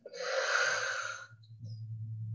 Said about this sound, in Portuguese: Fazendo uma respiração profunda, a gente vai voltando, espreguiçando.